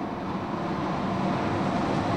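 A loud, steady roar of a passing train heard through an open window, a continuous low rumble mixed with rushing air noise that stays constant throughout, with no voices.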